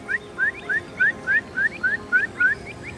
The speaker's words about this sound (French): Voilà encore deux avocettes là qui arrivent, ça c'est génial ça. On les entend là.